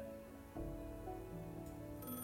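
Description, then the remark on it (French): A telephone rings with a steady electronic ringtone for an incoming call, its sustained tones shifting pitch a couple of times over a couple of seconds, clear with no voices. “Quelques jours plus tard, Tina reçoit un appel.”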